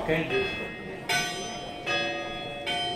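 Church bells rung by hand by members of the public at the Feria Fromago in Zamora province, four resonant strikes at slightly uneven intervals, each ringing out and overlapping the fading hum of the last, clear with no voices.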